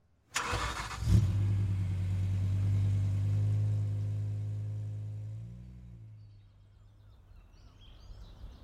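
A getaway car loaded with loot starts with a short crank, settles into a deep steady rumble, then shifts and fades as the thieves drive away from the scene. A faint hiss lingers at the end; no voices.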